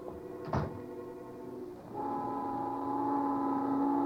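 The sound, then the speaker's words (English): A door slams once as two people leave, a sharp, fairly loud bang over a low background hum, followed a moment later by a steady, droning whistle-like tone, a noon whistle in New York, that holds to the end. “finally, the pair of them flying out the door.”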